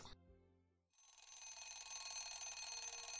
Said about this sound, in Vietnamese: Rang rang rang Tiếng chuông báo thức đột ngột làm mình thức giấc.